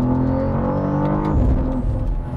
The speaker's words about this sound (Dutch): Wat heerlijk. Ik weet niet wat jij precies aan het doen was, maar... High performance driving was dat.